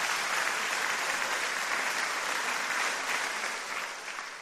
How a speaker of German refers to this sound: Komm, geben wir Jesus mal alle einen richtigen Applaus.